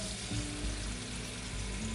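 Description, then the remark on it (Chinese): Two pots of water heating on a stove, one for making milk tea and one for boiling tangyuan, give a steady, even hiss with a faint bubbling texture and a low hum underneath, holding constant throughout with no voices. “好，我现在煮两锅水，然后一锅是要拿来做奶茶的，然后一锅要煮汤圆用的。”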